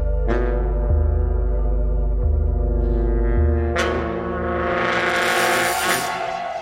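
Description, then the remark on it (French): A harsh, ugly note is blown into a wind instrument, loud and sustained for several seconds, wavering and then turning raspier and more shrill toward the end. No one speaks. “Un horrible son comme celui d'une porte qui grince ou d'une rage de dents en est sorti.”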